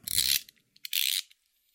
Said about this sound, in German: Das ist mein Teppichmesser.